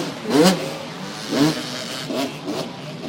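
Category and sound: vehicle, dirt bike engine revving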